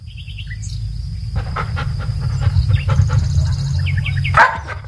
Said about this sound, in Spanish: Estamos frente a la casa Gisacan, en Glen Affleck uno de los valles más bellos de los Highlands. Hasta aquí han venido perros de todo el mundo para la mayor concentración de Golden Retriever del planeta.